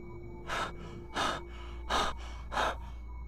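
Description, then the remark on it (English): Heavy, panicked breathing inside a car: four loud, ragged breaths in quick, steady succession, each a harsh rush of air like a gasp, fogging the car's window, with no talking. “He did, taking heaving breaths that began to fog the car's window.”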